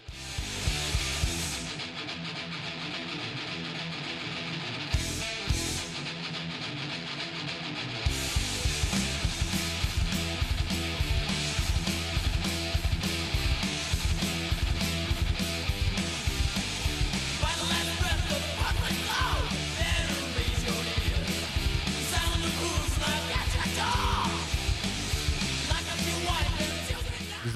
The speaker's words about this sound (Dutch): Ik stel voor dat we van, van … dan ook een liedje luisteren.